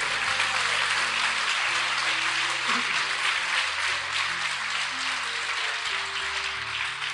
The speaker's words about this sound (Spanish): Aplauda fuerte al Señor si lo va a hacer.